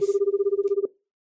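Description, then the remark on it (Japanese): A telephone rings with a steady, rapidly pulsing electronic trill for under a second, then cuts off abruptly, leaving silence. No voices are present. It is an emergency call coming in at 3 a.m. “深夜3時田村さんから決まって緊急電話が入るようになったので”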